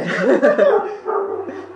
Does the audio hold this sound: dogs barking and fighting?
yes